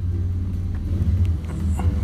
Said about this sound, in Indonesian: berisik nih motor nih